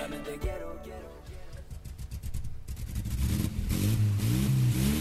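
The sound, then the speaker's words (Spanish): A car engine cranks and starts, then revs up loudly and steadily, its rising roar building and filling the last few seconds. “Arranca como American Village Automotores, compra-venta de autos seleccionados”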